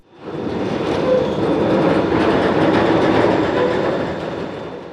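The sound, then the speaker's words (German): Bucket-wheel excavator 1580, a steel machine over 2000 tonnes, grinds through the Profen open-pit mine removing earth to reach lignite: a loud, steady mechanical roar with continuous rattling and clanking, fading in at the start and holding for several seconds, with no voices. “Die Luft erzittert, jedes Tier nimmt Reis aus, wenn sich Schaufelrad Bagger 1580 durch den Tagebau Profen frisst.”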